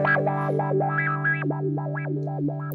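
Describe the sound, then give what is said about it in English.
A sustained, slightly distorted electric guitar note runs through a filter pedal set to random modulation with the rate turned up; its resonant peak jumps unpredictably up and down, producing a restless, quacking, randomly stepping wah effect, loud. “So now I'm in random. Random's really cool for filter.”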